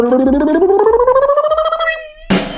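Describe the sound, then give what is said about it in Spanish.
A voice imitates a snare drum roll before a reveal, with a rapid rolled, trilling buzz that climbs in pitch for about two seconds, then ends in a short, loud, hissing crash-like burst. “Ahora sí viene el redoblante de tremenda vaina.”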